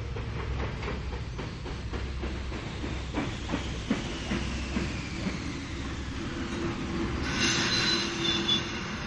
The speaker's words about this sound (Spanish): El tren era inmenso, mucho más grande de lo que podían soportar las angostas vías magnéticas. Nubes de vapor salieron de la locomotora cuando frenó de golpe en la estación,